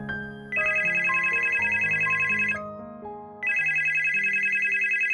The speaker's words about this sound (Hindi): पर जैसे ही मेरे टाइटन की घड़ी पर मेरी नजर गई तभी मेरे बीवी का फोन आता है और पता है वो मुझे क्या कहती है